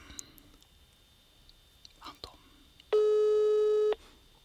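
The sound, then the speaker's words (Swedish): A single steady electronic ringback tone sounds for about a second, loud and clean, after a few soft clicks and faint rustling, as a friend is being phoned. “jag ringer en kompis Anton nu, han har ingen aning om att vi ska ringa”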